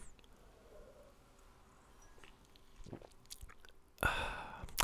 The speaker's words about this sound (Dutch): Klein beetje, maar even een slokje.